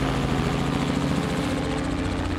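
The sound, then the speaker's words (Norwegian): A helicopter's steady, loud rotor drone fills the scene, with a low rhythmic thumping and broad engine whine holding constant throughout and no voices, as a rescue helicopter carrying a doctor finds a landing spot. “Helikopteret finner en landingsplass, og Sigbjørn og helikopterlegen hopper ut og tar seg frem til Nils Per.”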